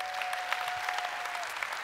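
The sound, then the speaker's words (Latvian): A large group claps together in a dense, continuous burst of applause given to the Lord, steady and fairly loud throughout, with a faint sustained tone running beneath it. “Dosim aplausu tam kungam!”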